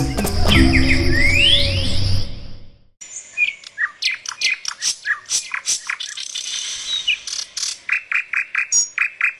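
After a couple of seconds of loud, swooshing music, a mockingbird sings alone: a lively run of varied high chirps and whistles, ending in fast, evenly repeated notes.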